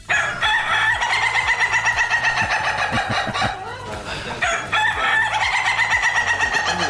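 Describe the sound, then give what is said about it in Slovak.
An Ayam Ketawa laughing rooster crows loudly in long, rapid, cackling bursts, two extended stuttering calls separated by a brief pause, clear with no one speaking. “Ayam Ketawa sa vlastne prekladá ako smejúci sa kohút a je to dosť drahé plemeno,”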